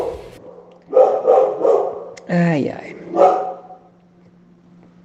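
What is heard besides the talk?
small dog barking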